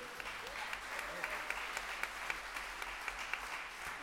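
An audience applauds steadily for a musician from Woodlawn, Virginia, a dense wash of many hands clapping with scattered sharper claps standing out, sustained at an even moderate level throughout.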